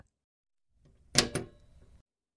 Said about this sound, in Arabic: كان صوت إقفال القفل مريعا